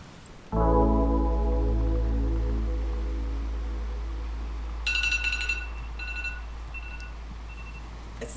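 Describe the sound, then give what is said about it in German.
A game timer alarm goes off abruptly with a loud, harsh buzzing drone that holds steady, and a few sharp, high-pitched beeps chime in over it partway through. No one speaks. “zusammenzuckt, wenn dieser Timer losgeht.”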